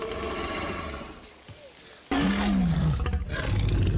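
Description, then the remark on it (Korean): A huge, bellowing dinosaur roar from a film, made by mixing the sounds of several animals including a pig, bursts in after a quieter rumbling stretch, loud, with a sweeping growl that slides down in pitch before a heavy, rumbling tail. “오히려 사운드가 졸라 리얼했잖아.”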